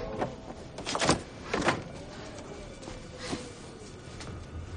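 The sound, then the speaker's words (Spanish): The door of a grandmother's cabin is handled and shut as someone enters, with a few muffled knocks and clunks spread over several seconds, against a quiet background. “Entra, cierra la puerta y deja la cesta en una mesa.”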